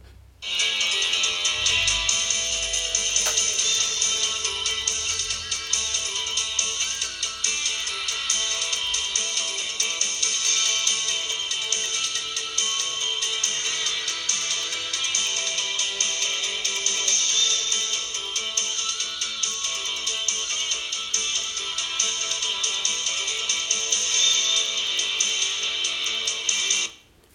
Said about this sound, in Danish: Det er en intro for en eller anden tv-serie. Du er tæt på. Det der, ikke? Det er introen til TV2's NFL-sendinger i 1989.